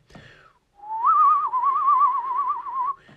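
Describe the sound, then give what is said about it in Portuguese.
A person whistles a call, a single sustained note that rises into a wavering vibrato, held steady for about two seconds before ending, fairly loud with no talking. “É tipo este, esta, este vibrato, não sei se é assim que se diz, mas é tipo esta cena assim com o assobio.”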